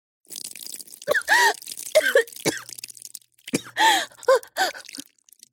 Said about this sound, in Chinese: 让她好一阵咳嗽。